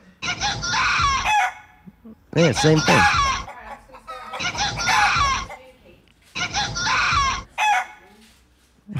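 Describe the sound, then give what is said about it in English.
A chicken squawks and clucks in agitated, drawn-out bursts, four loud cries spaced about a second apart, with a person briefly speaking between them. “Sounds like, sounds like one of Tim's chicken is in distress.”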